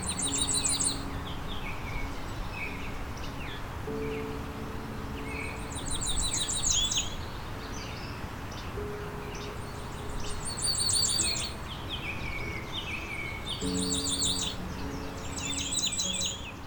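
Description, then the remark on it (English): A migrating warbler in southern Ontario repeats a short, high-pitched warble several times, each phrase dropping slightly in pitch and slowing at the end, over a steady low hum with other faint bird calls. “They have a high pitched warble that is short and often decelerates and decreases in pitch.”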